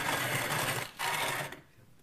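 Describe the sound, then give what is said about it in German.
A coffee grinder grinds coffee beans for 30 seconds, whirring loudly with a dense, gritty mechanical rasp, dipping briefly once before resuming, then cutting off and trailing into quiet. No one speaks. “So, ich habe jetzt 30 Sekunden gemahlen.”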